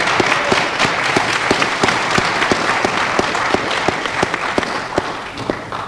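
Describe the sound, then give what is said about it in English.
An audience at an alumni study session applauds steadily for several seconds for the woman who organized it, a dense wash of many hands clapping with sharper individual claps standing out in a loose, quick rhythm. No one speaks. “We're tremendously in her debt for setting things up and for all the hard work that she does, and I think we should give her a round of applause now.”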